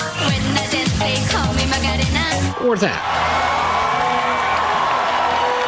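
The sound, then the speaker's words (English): A large convention crowd roars and cheers with whoops and shouts, building into a dense, continuous wall of cheering and applause, loud throughout. “There will be no convention floor packed with delegates, no cheering or applause, and no balloon drop.”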